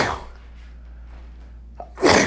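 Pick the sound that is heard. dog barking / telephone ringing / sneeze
sneeze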